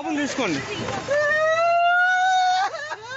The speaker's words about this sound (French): le cri de désespoir de ce père qui confie le corps inanimé de son fils à un policier.